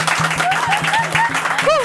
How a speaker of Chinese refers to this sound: 大家刚刚应该有听到，就是现在在 Podcast 的眼前耳朵前面的你，应该有听到非常环绕音响的拍掌、鼓手声音，因为我们通常都是用罐头音效，但是现场有一个。拍手部队在我们面前，对，然后这是我们人生第一次走向 live podcast 的现场